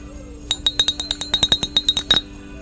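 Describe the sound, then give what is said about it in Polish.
Small bells jingle in a quick, steady run of about fifteen bright, high-pitched shakes lasting under two seconds, fairly loud with no talking, rung with wishes for healthy and joyful holidays. “To już ostatnie dzwoneczki razem z którymi chcieliśmy Państwu złożyć życzenia zdrowych i radosnych świąt.”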